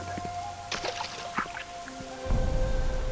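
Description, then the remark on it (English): Heavy rain pours steadily outdoors at Shiloh, Israel, heard from shelter within ancient ruins, a dense wash of hiss with scattered drips and splashes, swelling into a deeper, louder rush near the end. No one speaks. “It happened that the Lord blessed the land with rain on our visit, so we found shelter within some ancient ruins, while outside it poured.”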